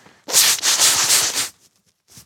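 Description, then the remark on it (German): Someone blows their nose in one long, harsh, breathy burst lasting over a second, followed after a pause by a short, quieter puff. No one speaks. “Aufnahme läuft zwar, aber loslegen erst nach Nase putzen.”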